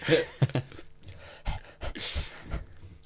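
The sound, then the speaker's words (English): Quick, breathy panting as it gets hot, coming in short, uneven bursts of hissing air, moderately loud with brief pauses between breaths and no talking. “Fuck, it's getting hot. Panting.”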